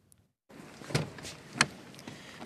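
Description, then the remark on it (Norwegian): A car dealer gets into an Audi A3: a sharp clunk, then a brighter click a moment later, over steady rustling and cabin hum after a brief silence. No one speaks. “setter seg inn i en Audi A3.”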